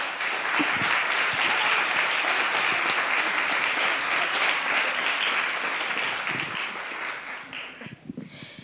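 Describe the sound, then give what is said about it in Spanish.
Sustained applause from an audience, a dense wash of clapping that holds steady for several seconds before thinning out and fading into a few scattered claps at the end. “claro que sí, porque si no, estos aplausos.”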